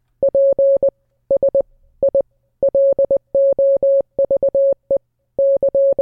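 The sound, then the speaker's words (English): A steady, mid-pitched electronic tone keyed on and off in quick Morse code spelling out a film title, mixing short dots and longer dashes in clustered groups with brief pauses between, loud and clear with no voices. “see see if you can guess which of your films this is in Morse code.”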